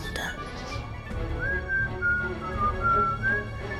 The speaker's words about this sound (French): ils sifflotent